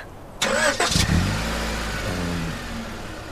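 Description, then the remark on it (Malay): A car engine cranks with a short, grinding burst, then catches and settles into a steady low idle that rumbles on. No one speaks. The car is being started to move it after it blocked another parked car. “Sorry cik saya blok kereta cik tadi uh, Tadi tak ada parking uh, Kejap eh saya ubah”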